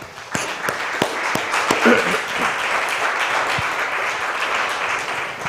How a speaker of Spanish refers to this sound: Dele un aplauso al Señor por eso, por favor.